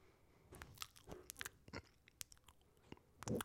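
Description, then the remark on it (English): Wet chewing with the mouth open, a run of irregular smacking and crunching bites over a few seconds, loud with no talking. “I'll chew with my mouth open.”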